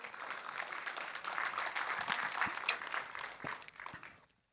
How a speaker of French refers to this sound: On a le droit d'applaudir. Je sens que ça vous tente.